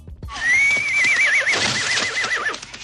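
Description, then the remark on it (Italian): A horse spooked by a tiger in a scene from Sandokan whinnies loudly, a long shrill call that rises and then wavers rapidly as it trails off, with some rustling and movement noise underneath. “Il cavallo si imbizzarrisce perché c'è la tigre”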